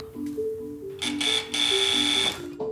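A doorbell rings with two harsh, buzzing bursts, a short one followed by a longer one, loud over a soft, steady tonal background. Kjell is ringing the doorbell.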